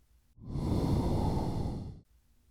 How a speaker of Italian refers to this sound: Di nuovo il respiro.